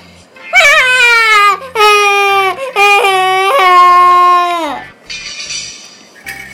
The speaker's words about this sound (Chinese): 有时候就算是熊妈妈也会大早就遇上麻烦，特别是熊宝宝醒来以后，趴在熊妈妈身上，趴在熊妈妈背头大哭时就更添乱。